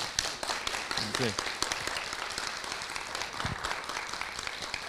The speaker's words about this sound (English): So thank you, and we look forward. to. we give them a round of applause?